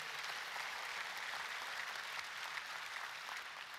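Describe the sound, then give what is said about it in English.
Sustained applause from a crowd, a dense, steady wash of many hands clapping at once, even for several seconds with no voices standing out. “Let's just give it up for shoes. Come on, that's awesome.”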